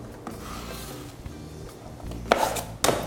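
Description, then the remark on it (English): A clean drywall knife blade scrapes joint compound up and over with a low, steady rasping drag, then two louder, sharper scrapes near the end. No one speaks. “Clean blade, pull this up and over. We'll just pull it up.”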